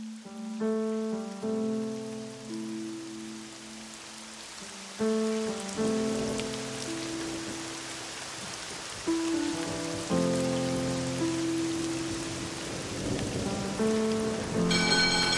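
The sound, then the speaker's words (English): Steady rain patters on hard surfaces throughout, a dense continuous hiss of drops, while sustained musical notes ring out over it in slow phrases. “It has started to rain.”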